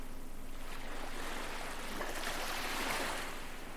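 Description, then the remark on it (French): A continuous wash of sea waves rolling in and drawing back over sand, swelling slightly partway through. Steady, with no voices. “Et maintenant, vous vous mettez à écouter les vagues de la mer. Les vagues qui viennent et repartent sur le sable.”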